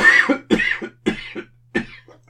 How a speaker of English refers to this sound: it's obviously the time of the day where I start coughing.